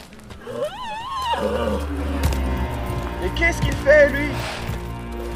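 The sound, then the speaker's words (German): A riding horse in Algeria kicks out, letting out a loud, quavering whinny near the start, followed by scuffling hoof sounds and snorts over a low, steady rumble, with a second shorter cry toward the end. “Doch etwas stimmt nicht. Ne das Reittier schlägt aus.”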